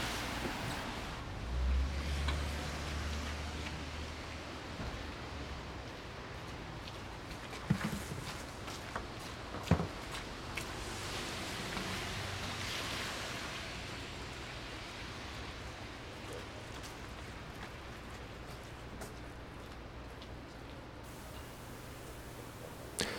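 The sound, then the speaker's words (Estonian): Steady outdoor wind noise roars, with a few scattered footsteps and small thumps now and then as someone walks on Vallimägi hill in Paide; no one speaks. “ühesõnaga, ma kõnnin nüüd Vallimäel, Paide Vallimäel.”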